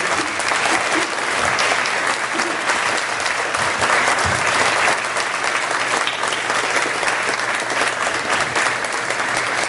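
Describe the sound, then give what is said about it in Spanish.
Sustained applause from an audience of young people, a dense, steady wash of many hands clapping at an even loudness throughout, with a faint murmur of voices underneath. “ese aplauso, jóvenes.”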